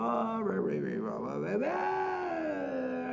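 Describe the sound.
A single voice makes a rough, gravelly growl, a throaty vocal-fry glottal distortion (creaky voice), that wavers in pitch before settling into a long held tone, steady with no other sounds.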